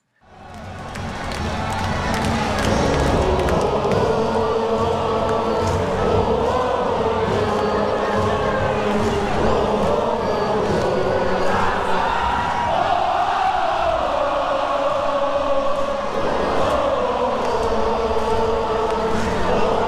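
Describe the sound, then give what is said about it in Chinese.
A large crowd of baseball fans chants a cheer song chorus in unison while pressing each other's heads up and down, loud and sustained throughout, with a steady rhythmic pulse of voices and drumming under the singing. “那我这边简单放一下整段压头的副歌，也就是说你等下听到这一段，全部都是一个压头的动作。”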